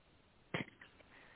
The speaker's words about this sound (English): so, so notice where the focal point of that cough is, where the root of it is, and that's the tissue that the energy you need to process through is probably stored.